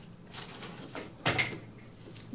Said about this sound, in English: Knocking over junk here to get a piece of paper.